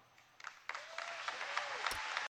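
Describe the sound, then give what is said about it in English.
An audience breaks into applause at a line of a political speech, the clapping swelling quickly into a dense, steady wash of hands with a few faint cheers mixed in, then cutting off abruptly. “So nice little applause line there.”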